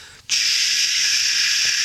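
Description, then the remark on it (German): A voice imitates the steady hiss of a cassette tape running out: after a brief pause, a close, loud, unbroken breathy 'shhh' holds evenly to the end, with no talking. “und dann macht so, hört auf zu reden, rauscht es so,”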